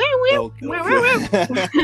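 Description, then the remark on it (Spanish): A person imitates a cat's meow, a few short, warbling vocal yowls in quick succession that come out sounding more like barks, over a faint steady hum. “Eso pareció más un ladrido que. Un maullo, sí, maullaste, pero bueno, ahí, la llevas.”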